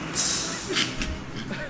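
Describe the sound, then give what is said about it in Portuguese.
A Cabral bus stops right out front with a sharp hiss of air brakes, followed by a second, shorter release over a low engine rumble, moderately loud. “o ônibus da Cabral parou aqui na frente, peraí.”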